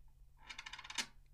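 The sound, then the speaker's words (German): A coin clatters onto a hard surface, a quick series of bright metallic taps ending in one louder ring, fairly quiet, with no voices. “Lass die Münze in Ruhe.”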